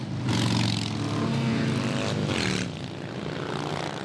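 Loud, continuous roar of many motorcycle engines in a motorcycle parade passing by, a deep rumbling drone with two brief revving surges rising above it, and no voices.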